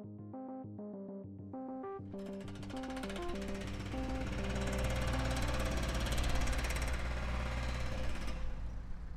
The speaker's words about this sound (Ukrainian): Звуки моя вулиця. Там, де я проживаю, це звуки будови.